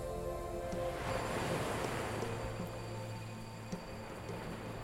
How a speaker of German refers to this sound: Es scheint fast zornig. Die Wellen werden in großer Kraft hin und her geschüttelt. Das Wasser peitscht. Du siehst weiße Schaumkronen. Du kannst Meerwasser von den sich überschlagenden Wellen in deinem Gesicht fühlen.